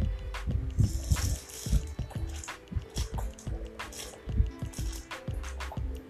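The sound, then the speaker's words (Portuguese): Wet gulping and swallowing sounds of a person drinking water repeat in an irregular rhythm, with soft squishy liquid noises between them and no one speaking. “Talvez sim, talvez não, porque eu não sei se, essa, se esse áudio da minha garganta descendo a água saiu.”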